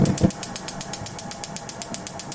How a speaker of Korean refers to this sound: 이 소리예요. 가스레인지 이렇게 점화하는 소리 있잖아요. 예. 요거 어느 정도 이제 시간이 지나야 붙지, 붙기 전에 하면 그냥 꺼져버리죠.